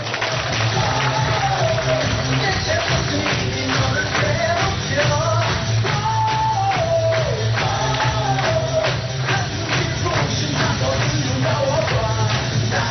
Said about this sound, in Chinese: 再给自己热烈掌声鼓励一下。